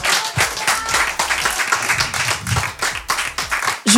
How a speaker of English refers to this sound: faites du bruit, un maximum d'applaudissements pour Julien